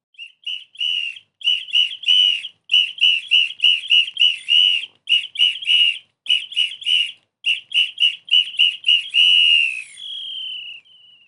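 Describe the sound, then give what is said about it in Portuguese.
A bird-like whistle signal: a rapid string of short, bright chirping whistles at a steady high pitch, grouped in quick bursts with brief gaps, ending on a longer falling whistle. No voices. “Gente, o passarinho tocou e por aí vocês já sabem, né? A história precisou ser interrompida.”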